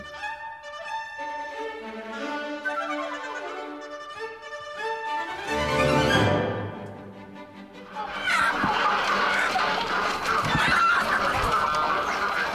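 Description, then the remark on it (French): Loud chickens cluck in a busy, overlapping chorus while a rooster's drawn-out crow rises above them, the racket thickening into a dense barnyard din toward the end. “Qu'est-ce que c'est que ce vacarme C'est à rendre sourd Cocorico”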